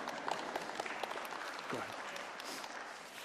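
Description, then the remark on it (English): A crowd claps steadily as the speaker's wife and youngest daughter stand, dense scattered hand claps forming a continuous wash of applause that holds at a fairly even level throughout, with faint voices mixed in. “So, oh, you don't have to clap. You don't have to clap.”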